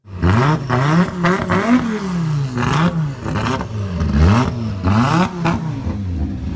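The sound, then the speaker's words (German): An Audi Sport quattro rally five-cylinder engine revs hard in repeated rising and falling bursts, its loud, raspy growl climbing and dropping in pitch over several seconds with no one talking. “Das ist der Rallye-Sound sozusagen.”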